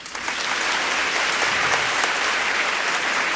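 An audience claps steadily, a dense wash of many hands sustained at an even loudness throughout, with no voices standing out.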